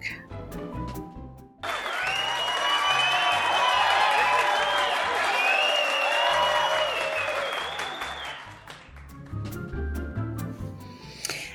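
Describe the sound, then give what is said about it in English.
A burst of crowd applause and cheering swells up suddenly, holding loud and steady for several seconds before fading out, with a voice talking briefly before and after. The cheering is a sound effect of cheering fans that signals the start of a listener comments segment. “And the sound of our cheering fans means it's time for listener comments.”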